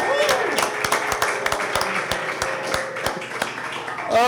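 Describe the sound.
A live audience applauds: dense, steady clapping with scattered sharper claps and crowd voices mixed in, holding at a fairly loud level for about four seconds before swelling at the end.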